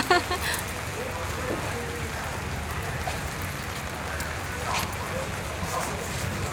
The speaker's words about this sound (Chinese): 给大家听听自然的雨声。